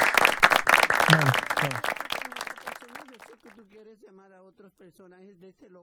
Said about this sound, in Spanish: Un aplauso, aplauso, aplauso, claro.